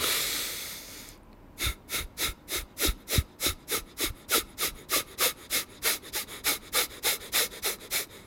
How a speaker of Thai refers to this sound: ก็ช่วงแรกๆอ่ะมันจะเหมือนก็จะใช้ลมที่เรากั้นไว้นะที่เรากักไว้ในในในในในปอดเรานะครับ แล้วก็หายใจออกปึ๊บปึ๊บปึ๊บปึ๊บปึ๊บปึ๊บปึ๊บปึ๊บออกมา นะครับ